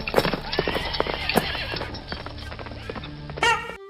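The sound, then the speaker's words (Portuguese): A terrified horse whinnies loudly with a wavering, rising-and-falling neigh while rapid hoofbeats pound underneath as it bolts, ending in a sharp final whinny burst. “O outro cavalo, ele te olha com aqueles olhos imensos arregalados, levanta, dá uma relinchada e dispara com terror, assim.”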